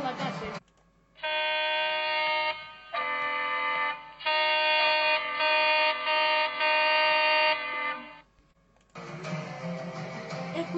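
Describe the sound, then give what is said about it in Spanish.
Horns of passing cars honk in a series of loud, blaring blasts: two shorter toots and then a long sustained one, with a person talking just before and after. “Escuchó las bocinas de los coches que pasaban por”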